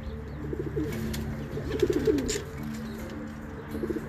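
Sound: racing pigeons cooing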